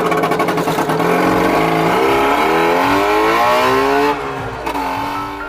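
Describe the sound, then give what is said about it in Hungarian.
The engine of a Trabant, a small plastic-bodied car, revs loudly, its buzzing pitch climbing steadily over several seconds before briefly dropping and picking up again. No one speaks. “Persze ez nem egy igazi műhold volt, hanem egy műhold nevű autónak nevezett műanyag jármű, vagyis egy Trabant.”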